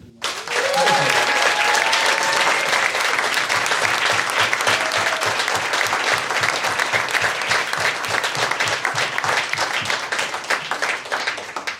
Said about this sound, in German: Das ist euer Applaus.